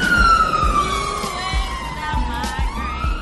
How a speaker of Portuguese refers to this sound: Eita, tá passando o um caminhão dos bombeiros aqui, peraí.